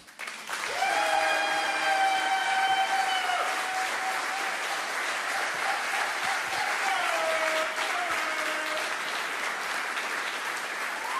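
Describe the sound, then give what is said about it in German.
An audience claps for the speaker's husband, steadily and loudly, a dense wash of hand claps that begins abruptly and continues throughout, with a high sustained tone sounding over the applause in places. “Und an dieser Stelle dürft ihr nochmal für meinen Mann klatschen.”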